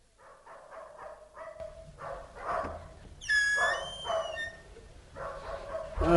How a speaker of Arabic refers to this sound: الريح جبالي والليلة ظلمة والكلاب باقي تتنابح